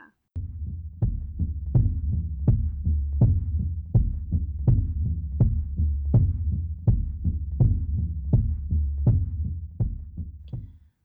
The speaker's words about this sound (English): I really love the intro to this song. It sounds the drums kind of sound like a heartbeat to me mm. um, the way they kind of come in in the beginning.